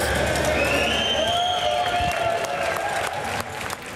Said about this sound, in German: Auch wenn es heute am Tag zwei manchmal ein Knorz war, laufe alles nach Plan und das grosse Chapiteau, das steht seit diesem Mittag. Auch dank der Zürcher Helferinnen und Helfer haben am Schluss alle geklatscht.